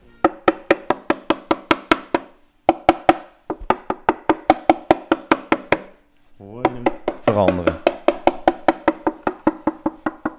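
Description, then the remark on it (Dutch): Rapid, even knuckle taps on an instrument's wooden top plate, hollow-sounding, come in quick bursts with short pauses, while a voice briefly murmurs under the tapping partway through; where the top plate has come loose, it rattles against the lining. “Ja, ja, je hoort dan echt het bovenblad op de krans tikken.”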